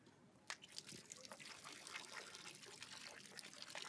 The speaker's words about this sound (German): Hey Leute, so tönt es im Fall, wenn ich ins Wasser reinpisse.